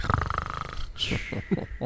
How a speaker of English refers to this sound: … laying down like breathes in a way that sounds like he's snoring